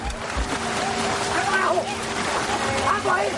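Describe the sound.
Quick footsteps of a boy running splash and churn through a shallow flowing river, a steady wash of sloshing over a continuous rushing background, with a faint voice murmuring underneath.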